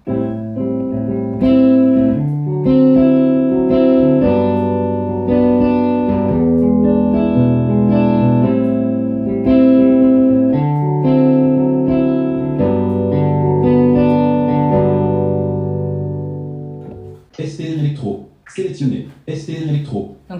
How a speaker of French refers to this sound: SPR Clean. C'est une guitare électrique clean donc.